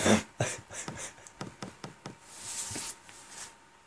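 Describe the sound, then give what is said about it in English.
A man smacks himself twice: sharp, fleshy smacks, like a hand slapping skin, land in quick succession with brief gaps, then fade into a soft hiss. No one speaks. “Oh, yep, did you hear that? I just smacked myself twice.”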